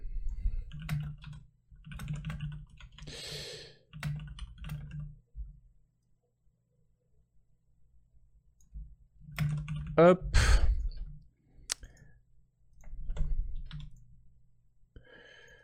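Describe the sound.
Rapid clacking keystrokes from a mechanical keyboard come in bursts, crisp, as a person types notes while talking over much of the typing, with a short quiet pause in the middle.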